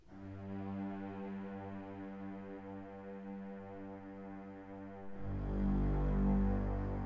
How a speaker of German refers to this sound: Und was natürlich geht, ist äh, tiefe Streicher. Tiefe Streicher sind auch Spannung und Suspense.